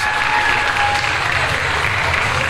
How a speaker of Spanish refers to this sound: Supongo que no es a nosotros quienes aplauden ahí los.